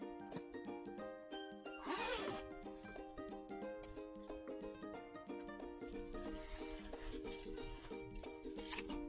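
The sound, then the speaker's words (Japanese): Loud rustling and handling noise as a jacket is taken off on a hot day in Okinawa and a pin microphone is removed, with a zipper-like rasp near the start and another burst at the end, over steady background music. “ちょっとね、あの、ピンマイク外すね、ボフボフするのは申し訳ないけど、ちょっと一旦お待ちを。”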